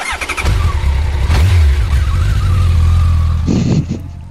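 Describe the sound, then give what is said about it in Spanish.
A loud motorcycle engine revs up with rising, whining pitch and roars steadily, then tapers off near the end as it pulls away. No voices are heard. “Así que bueno, vamos se va la moto, se va vacante.”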